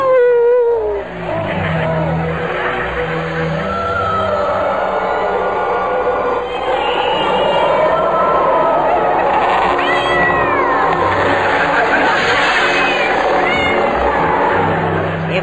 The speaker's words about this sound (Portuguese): Quem tá aí? Miau!